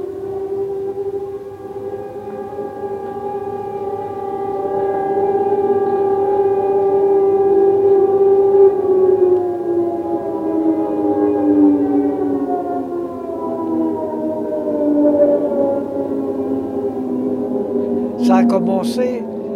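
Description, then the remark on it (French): A loud air raid warning siren, the alert given in Paris whenever an aircraft appeared on the horizon, wails steadily for the whole stretch, its tone slowly sliding downward toward the end, with a few brief clicks near the close. “Et euh, dès qu'il y avait un avion qui, qui apparaissait euh, à l'horizon, euh, tout de suite, c'était l'alerte qui était donnée, et je me rappelle très bien.”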